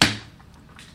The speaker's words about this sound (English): That sound you heard, that was actually the sound of the scientist slapping his hand on the machine.